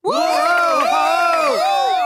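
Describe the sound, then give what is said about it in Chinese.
An excited crowd of high-pitched voices, the little animals of a story reacting to a hippo chef's announcement, cheers and whoops together, many overlapping shouts rising and falling in pitch, loud and sustained throughout the short burst. “河马大厨这话一出，在场的小动物们都轰动了起来”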